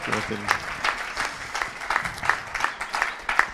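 Audience applause for visiting guests at an event in Lövik: a steady patter of many hands clapping at a moderate level for a few seconds, with a few sharper individual claps standing out.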